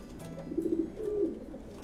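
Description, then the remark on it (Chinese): Pigeons coo in low, soft, throaty rolls as they fly down and land on a roof, two short bursts of burbling calls over a quiet background, with no voices present. “空中的鸽子很快的都敏翅降落”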